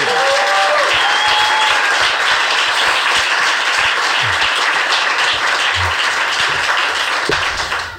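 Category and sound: crowd, audience ovation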